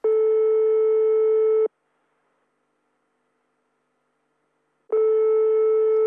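A telephone ringing tone heard while calling: a steady, buzzy electronic tone sounds for about a second and a half, falls silent for several seconds, then starts again. No voices.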